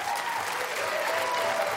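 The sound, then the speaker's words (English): Steady audience applause for a magic trick, a dense wash of many hands clapping at an even, moderate level with no voices standing out. “I didn't come here for sympathy applause.”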